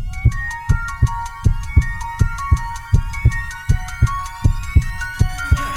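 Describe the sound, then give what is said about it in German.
A steady, thumping heartbeat pulses in regular pairs beneath a bright, sustained musical backing with repeated clicking ticks, loud, with no one speaking. “Herzschlag für ein gesundes Berufsleben.”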